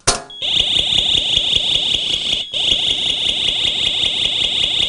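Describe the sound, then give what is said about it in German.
A short knock as a mains-powered Wiesertech home alarm sensor is dropped from 5 to 10 cm to register it with the alarm system, followed immediately by a loud, piercing electronic alarm tone that sounds continuously with a fast pulsing buzz, with a brief dropout midway. “Äh, und dann nimmt man den hoch und lässt ihn aus 5 bis 10 cm Höhe fallen.”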